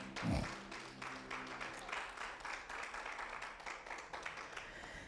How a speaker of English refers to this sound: Thank you, praise team. Thank you, thank you. Come on, give our hand, praise team, a hand clap of praise. Amen.